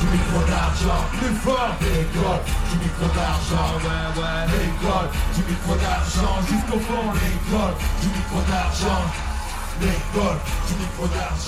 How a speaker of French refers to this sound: Et euh, enfin, euh, bah, on va terminer sur du, clapping et hurlement en rythme.